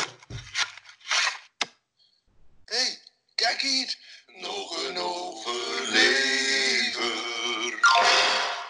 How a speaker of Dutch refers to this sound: Vals, ja, vond die jingle toepasselijk.